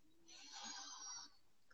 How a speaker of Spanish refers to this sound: que van a cerrar un poquito los ojos ustedes, van a tomar una respiración profunda por nariz.